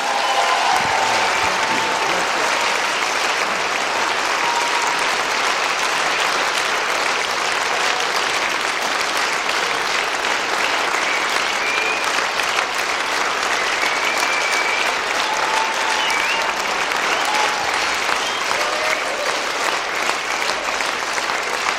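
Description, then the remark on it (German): An audience claps in sustained, dense applause for about twenty seconds, steady and fairly loud throughout, with faint voices and cheers mixed into the crowd noise. “Und alle sagen gemeinsam, kann man das uns Gott mal einen großen Applaus geben.”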